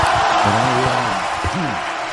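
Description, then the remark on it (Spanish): An audience cheers and applauds, a dense, steady wash of clapping with a few voices shouting and whooping over it for about two seconds. “Le pido Vítores. Aplauso y, ovación.”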